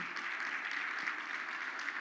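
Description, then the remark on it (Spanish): A crowd applauds the Lord during a sermon, clapping steadily in a sustained burst of applause, a dense, even wash of many hands filling the room without pause. “Sí, ahora vamos, denle un aplauso al Señor porque es bueno”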